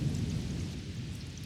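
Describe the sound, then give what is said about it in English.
A brief burst of thunderstorm: deep, steady rumbling thunder under a continuous hiss of rain, fairly loud and sustained throughout with no voices. “Storm's over.”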